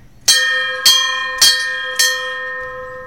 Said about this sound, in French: Pour faire venir le bateau, il faut sonner la cloche.